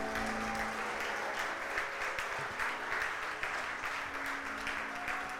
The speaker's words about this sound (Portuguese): Aleluia! Aplauda Ele bem forte.